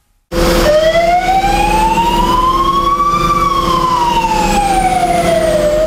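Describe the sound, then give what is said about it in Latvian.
A fire engine siren of the State Fire and Rescue Service's Valmiera unit, responding to a call, wails loudly and continuously, its pitch sweeping slowly up and then back down in a long rising-falling tone over a steady low engine rumble, with no voices. “nu, mēs turpinām tiešām ar ugunsdzēsēju sirēnām.”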